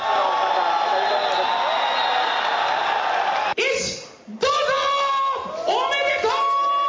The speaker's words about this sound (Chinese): 大阪大洞窟也塞爆狂欢的人潮，在街头狂吼狂叫。